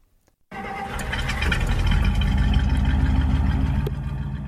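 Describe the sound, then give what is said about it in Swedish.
The six-cylinder engine of an American four-door police sedan, 145 horsepower and 225 cubic inches, cranks and fires up abruptly after a brief silence, then settles into a loud, steady, rumbling idle, with no one speaking. “amerikanska fyrdörrarsedanen passade bra med att både jaga flyende busar i och ta hand om fyllerister eftersom den hade ett rejält baksäte och en stark sexcylindrig motor på 145 hästar och 225 cubic inches.”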